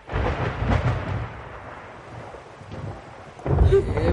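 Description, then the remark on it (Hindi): Heavy rain pours steadily on a dark night in the monsoon month of Sawan, with deep rolls of thunder rumbling at the start and again near the end, the storm loud throughout. “Madam जी बारिश देख रहे हो हैं? उसमें ये सावन की काली अंधेरी रात”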